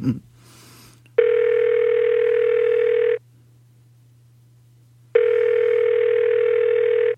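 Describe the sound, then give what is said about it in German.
A telephone ringback tone from a call placed on a touchscreen phone sounds twice, each steady buzzing tone lasting about two seconds with a pause between, fairly loud, over a faint low hum. “Also es fängt einfach an zu klingeln, wenn man drückt.”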